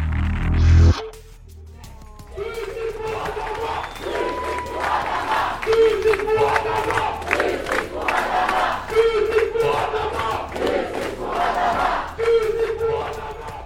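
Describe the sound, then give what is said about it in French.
A large crowd chants in unison at a protest march, repeating a short sung phrase in rhythmic waves over steady crowd noise, after a brief loud burst at the start. “au final une marche entre dignité et colère, un événement que vous fait vivre Esther Laudet à travers son reportage pour l'actu des luttes sur Radio Parleur.”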